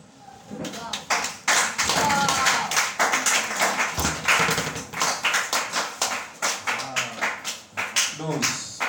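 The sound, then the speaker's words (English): An audience claps loudly and steadily for several seconds, clapping for grace, the dense applause settling into a more rhythmic, pulsing beat toward the end, with voices mixed in underneath. “Please, applause. Clap for that grace.”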